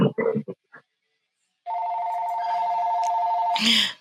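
A few short voice-like sounds, a brief pause, then a telephone rings with a steady, fairly loud electronic tone for about two seconds, cut off by a brief noisy burst; the call is a business call.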